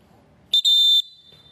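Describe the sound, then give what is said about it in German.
A shrill Molten Falcon referee whistle sounds a double blast, a quick short burst followed at once by a longer piercing one, loud against a quiet, faintly murmuring background. “Und auch hier noch der Doppelpfiff.”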